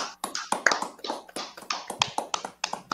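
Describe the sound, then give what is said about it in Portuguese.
A round of applause from a group, with many sharp hand claps overlapping in a dense, irregular patter that stays fairly steady for the whole stretch, with no voices over it. “salve de palmas para.”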